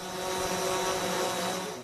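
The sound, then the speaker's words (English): A police surveillance drone of the kind Victoria Police dispatch to watch beaches and parks during COVID hovers overhead, its rotors giving off a steady, loud buzzing whine with layered tonal hum that holds constant throughout, with no voices. “Over the next week, Victoria Police will dispatch drones.”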